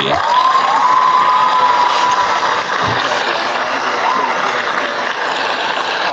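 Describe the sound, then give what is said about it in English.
Loud, sustained applause and cheering from a crowd fills the whole stretch, with a shrill whistle rising out of the noise early on and no speech. “Can I get some applause here?”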